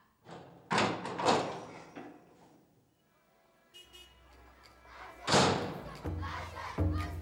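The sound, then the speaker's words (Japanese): A few heavy door thuds give way to a busy daytime town street in Japan: crowd clamor, a low vehicle rumble as a streetcar rushes noisily past, and metallic ringing tones, loud, with bursts of noisy commotion. “扉を開けると私はもう町の往来に立っていた昼間市電が髪を跳ね上げてけたたましく過ぎてゆく”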